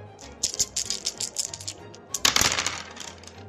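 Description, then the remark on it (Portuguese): Three dice rattle with rapid, bright clicking taps, then tumble out in a louder clatter that quickly settles. No voices are heard. “Pote de mel, tens a tua irmã te dando um bônus, rola três dados.”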